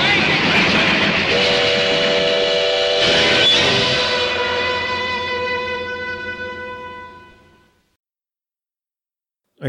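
A steam train rumbles loudly and close while its whistle lets out a long, sustained shriek for several seconds, then everything fades away into silence.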